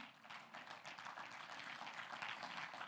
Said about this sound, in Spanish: ¿Cuántos dicen amén? Un aplauso al Señor.